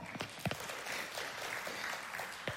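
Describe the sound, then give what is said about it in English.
Audience applause at a church service: a steady wash of many hands clapping, dense and crackly, holding an even, moderate level for a couple of seconds, with no voices over it. “Would you clap if you think that's a good idea?”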